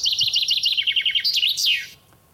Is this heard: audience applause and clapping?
no